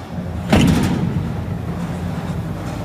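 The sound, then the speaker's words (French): Gym sounds: a single heavy clank rings out near the start, like equipment being set down, then fades into a low, steady rumble of room noise. No one speaks. “ouais, c'était effectivement la salle de sport.”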